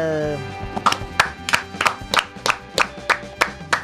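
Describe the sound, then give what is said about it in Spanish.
Applause for World Freedom Day (Día Mundial de la Libertad) in a steady rhythmic beat, about ten sharp, even claps in a row over a soft tonal musical background, with no talking. “Gracias chicos por aplaudir el Día Mundial de la Libertad, bueno, se lo dedicamos a Esperta, a Milei y a toda la gente que defiende la libertad en el país.”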